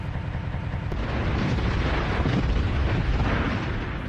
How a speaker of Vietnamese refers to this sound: Sau nhiều giờ, quân địch mở đợt tấn công ồ ạt tiến sát đến hầm giao thông hảo của đồn. Trong tiếng pháo chát chúa,